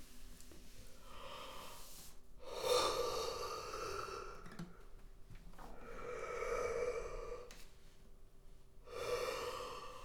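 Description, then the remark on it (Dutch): Three long, exaggerated yawns, each a drawn-out breathy vocal sweep that swells and fades, spaced a few seconds apart, with no talking, done as a relaxation exercise to loosen the jaws. “Lekker overdreven gapen en wrijf dan ook even met je hand langs je keel.”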